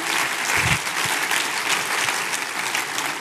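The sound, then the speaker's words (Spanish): A large audience claps steadily at a church service, giving a big round of applause to the Lord, a dense wash of many hands continuing at an even, fairly loud level throughout, with no one speaking over it. “Dale ese aplauso grande al Señor.”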